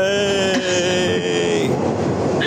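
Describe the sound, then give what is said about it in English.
A New York subway train riding from Queens back to Manhattan rumbles and clatters loudly along the rails, with sustained high-pitched wheel squeals ringing over the steady mechanical roar throughout. “We're riding the subway”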